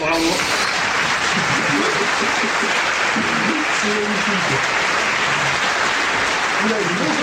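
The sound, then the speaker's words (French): A sound effect of a wild crowd cheering and applauding continuously in a dense, roaring wash of clapping and shouting, loud and sustained throughout, with a voice briefly speaking over it. “Il est très très long, c'était foule en délire.”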